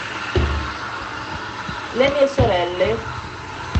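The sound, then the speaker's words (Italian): A washing machine runs in the background, a steady low rumbling hum beneath a woman speaking. “scusa il rumore della lavatrice”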